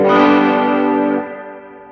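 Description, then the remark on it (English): A single electric guitar G power chord struck loud and sustained through an amp with reverb, with a bright, harmonically rich onset that rings out and decays into a lingering reverberant tail. No voices. “gonna hit a G. So G G power chord.”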